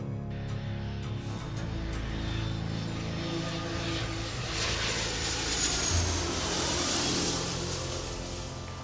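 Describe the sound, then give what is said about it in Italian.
An airplane carrying a cargo of diamonds arrives on schedule, its engine droning steadily, the roar broadening and swelling louder toward the end as the aircraft draws closer. No voices are heard. “Ispettore Ginko, ecco il nostro aereo con il carico di diamanti. In perfetto orario.”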